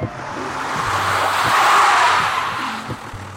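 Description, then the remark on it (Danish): A car brakes hard in morning traffic with a swelling hiss of skidding tires that peaks midway and eases off, while a low engine rumble hums underneath, fairly loud, with no talking. “Bilen foran mig chatbremser uden grund hele tiden.”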